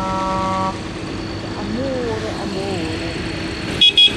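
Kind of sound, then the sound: vehicle, truck horns honking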